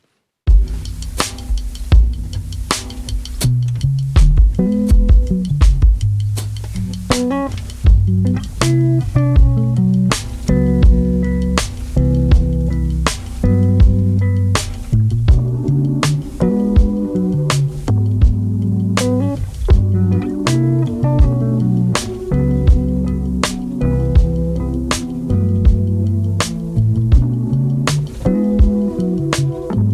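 A full music track plays steadily and loudly, with warm bass notes, layered harmonic chords and regular percussive hits driving a relaxed groove throughout, with no talking over it.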